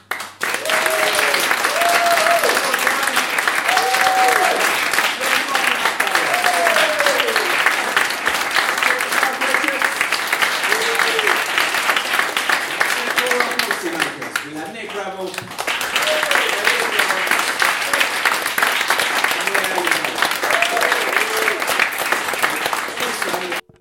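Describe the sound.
Sustained audience applause for the evening's panelists lasts over twenty seconds, loud and steady, with a voice speaking over the clapping and a brief dip in the middle before it swells again.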